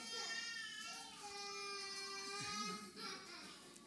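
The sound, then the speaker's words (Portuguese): A baby wails in a steady, drawn-out cry that rises and falls over a few seconds, in a room, without any clear talking. “Ah, as, algumas irmãs estão com dificuldades com os seus bebés, fiquem à vontade para deixar a sala sem problema, está bem?”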